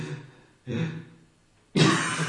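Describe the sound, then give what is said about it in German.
A person imitates the uneven breathing of a newborn baby in its first weeks: a breath, a short pause, another breath, then a longer silence before a stronger, rougher breath. Fairly quiet. “wenn äh, ein Kind die ersten Wochen da ist, ähm, dann ist es ja so, dass, äh, dass das mit dem Atmen, das, das wissen die ja nicht von vornherein, wie das funktioniert.”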